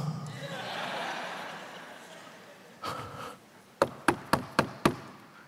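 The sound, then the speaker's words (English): Five quick, evenly spaced knocks on a door ring out sharply, following a stretch of soft, breathy rustling and a brief muffled bump. “And he, babe, somebody's knocking on the door.”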